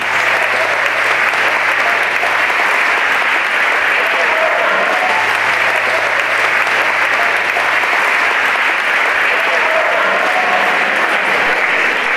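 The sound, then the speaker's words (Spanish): A large audience gives a standing ovation, waving white handkerchiefs in the air, for two Colombian performers: a dense, continuous wash of clapping that stays loud and even throughout, with no voices standing out. “Aplausos de pie y con pañuelos blancos batidos al aire para estos dos representantes de la raza colombiana”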